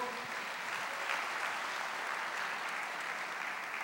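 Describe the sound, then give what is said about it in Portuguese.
A crowd applauds the Lord steadily, a dense, even wash of many hands clapping that holds at the same loudness for several seconds without pause or talk. “Pode aplaudir o Senhor.”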